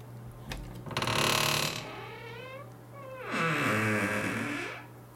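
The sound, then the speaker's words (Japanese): Two long, loud creaks from a door at the speaker's home swinging open and then shut, each a drawn-out groaning squeal with a sliding pitch, with no talking. “よくね、その、まあドラマとか、まあラジオの音声の何か、その物語とかでね、扉が開くっていうのをさ、音でギーって、ね、あるじゃないですか。そんな音しないのよ、リアルでは。でも、うちはするよ。”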